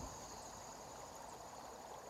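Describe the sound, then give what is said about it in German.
A small brook winding through a forest flows steadily not far off, with a continuous, even, moderately soft rushing and gurgling of water, with no voices. “Das Rauschen des kleinen Baches, der sich nicht unweit von dir durch den Wald schlängelt.”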